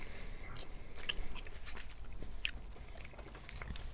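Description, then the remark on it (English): Wet chewing of a soft, gummy raspberry lolly, with sticky squelches and a couple of sharper crunchy bites over four seconds, no talking. “Um, going for the chew.”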